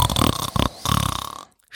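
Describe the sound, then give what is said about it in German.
A voice imitates a lion snoring: two loud, rough, rattling snorts with a short gap between them, the second longer and fading out, followed by a brief breath. “schnarchte weiter.”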